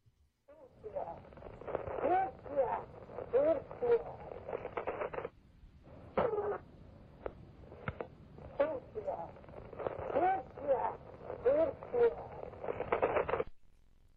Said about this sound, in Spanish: Vamos a volver a escuchar esta psicofonía y presten mucha atención.